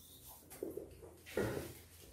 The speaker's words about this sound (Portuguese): Deixa eu dar uma pausa agora aqui. Pra dar aquela hidratada.